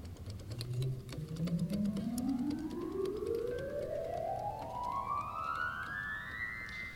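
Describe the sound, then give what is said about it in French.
A pipe organ on its bourdon stop, a very basic stop called Le Bourdon, runs rapidly upward from deep bass notes to high ones in one smooth, continuous climb, its soft, hollow flute tone steady and fairly loud, with no talking. “Maintenant, je vais prendre un jeu très, euh, très de base, ça s'appelle Le Bourdon.”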